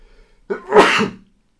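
A single loud sneeze with a short inhaled build-up followed by a sharp, breathy burst that fades quickly into silence.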